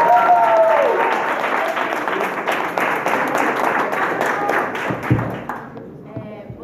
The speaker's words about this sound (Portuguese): Aplausos.